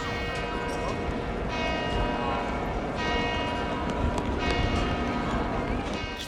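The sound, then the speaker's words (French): Church bells of the basilica and other church towers on St Mark's Square peal continuously at noon, ringing far longer than twelve strokes, their overlapping tones loud and steady with a busy outdoor hum of crowd noise beneath. “on entend les cloches qui sonnent à midi et qui sont euh, euh, qui font pas juste 12 coups mais qui sonnent pendant euh, très très très longtemps et en fait on n'entend pas que les cloches de la basilique mais aussi les cloches des clochers des”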